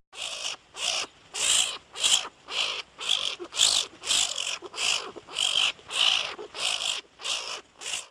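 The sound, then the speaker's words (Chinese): Skunk sounds: a steady series of about fourteen raspy, hissing squeaks, each burst short and high-pitched, repeating at a quick even rhythm with brief gaps between. No one talks. “Skunk, skunk，臭鼬。”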